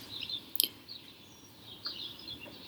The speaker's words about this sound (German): heute vom Balkon. ihr könnt es vielleicht hören anhand des Vogelgezwitschers.